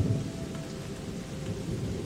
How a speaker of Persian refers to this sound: باران رو احساس کنید لطافت و تازگی که باران به شما میده در این باران تمام ناراحتی ها شسته میشه